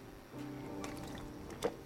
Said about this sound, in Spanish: permítame permítame darle, permítame tomar un poquito de agua primero